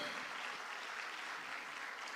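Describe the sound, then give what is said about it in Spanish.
A church audience applauds loudly in praise to the Lord, a dense, steady wash of many hands clapping with no pauses, sustained evenly for the whole stretch with no voices rising above it. “Dele palmas fuerte al Señor entonces.”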